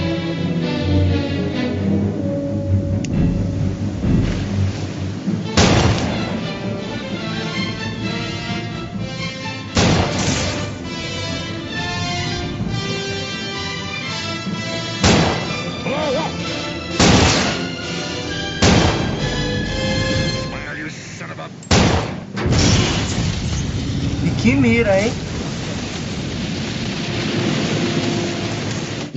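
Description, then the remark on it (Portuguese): Several loud, sharp bangs like gunshots and explosions burst out at irregular intervals over a dense, rumbling movie soundtrack with sustained music underneath, with no one speaking. “Não sai, fogo. Não, é só explode.”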